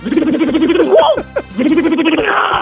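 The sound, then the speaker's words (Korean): A voice mimics an impact wrench removing car wheels at a car repair shop: a loud, rapid rattling buzz, a short whining pitch swoop, then another sustained rattling burst. “카센터에 가면은 예. 자동차 바퀴 뺄 때”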